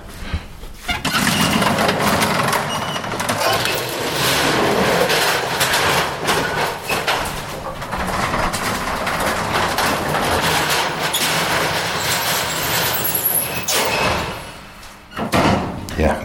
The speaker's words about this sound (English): I'm behind the scenes at the London Metropolitan Archive. Elevators with this kind of door abound.